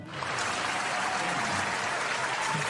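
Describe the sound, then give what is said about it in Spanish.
A steady burst of applause for a birthday, many hands clapping in a dense, continuous patter that swells in quickly and holds at an even level throughout, with no voices. “Y bueno, vamos a darle unos aplausitos.”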